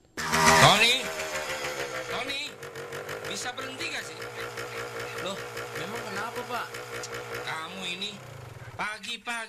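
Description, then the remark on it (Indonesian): A motorcycle engine is started and revved noisily by someone learning automotive work: it roars loudly at first, then keeps running in a steady, rumbling drone with small rev surges, while voices talk over it. “sudah menghidupkan motor sambil digas-gas berisik tahu?”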